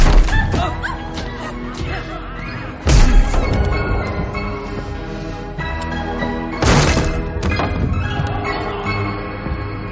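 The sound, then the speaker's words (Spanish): Two heavy, booming crashes of doors in a house being kicked open by an armed man, a few seconds apart, each a sharp loud impact standing out over a dense, steady musical background. “Patea otra.”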